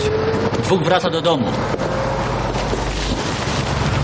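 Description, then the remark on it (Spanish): A car pulls away after someone gets back in and they are let through. Its low engine rumble builds steadily beneath a constant wash of windy noise, with a brief muffled tonal sound near the start. “Vuelve a montarse en el coche y les dejan pasar.”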